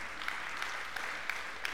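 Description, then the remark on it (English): Steady rhythmic clapping by a woman, about five even claps spaced a third of a second apart, standing out over a dense wash of broader applause-like noise. No one speaks. “I mean, what does that do to you even before she started clapping, right?”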